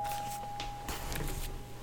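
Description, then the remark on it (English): A doorbell at a home rings as a steady electronic tone that holds for nearly a second, then cuts off amid faint rustling and shuffling noises. “Well, we're sorry about that. That was the doorbell.”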